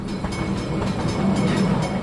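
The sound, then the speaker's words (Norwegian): A small amusement park train ride rolls along its tracks, a steady rumble with faint, regular clicks running through it. No voices are heard. “Toget er en av de mest populære aktivitetene.”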